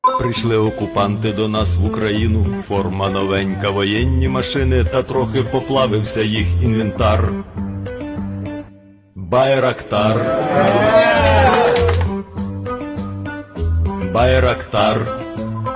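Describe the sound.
A song sung in Ukrainian in praise of the Bayraktar TB2, a Turkish combat drone: a voice sings loudly over steady, full instrumental backing, with a brief break near the middle before the music resumes.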